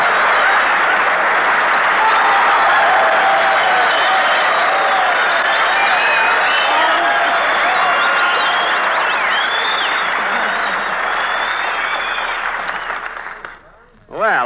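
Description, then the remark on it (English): A large audience applauds loudly and steadily, a dense wash of clapping with scattered cheers that holds for about thirteen seconds before quickly dying away, as screen actress Virginia Bruce is introduced and takes a bow. “You know, Virginia, you you got more applause than I did.”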